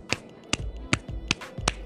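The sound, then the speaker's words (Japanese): Five evenly spaced, crisp hand claps repeating at a steady beat with no talking, one person imitating the rhythmic clapping of a pro wrestling crowd. “そこじゃねえだろって時でもあるじゃないですか。手拍子。”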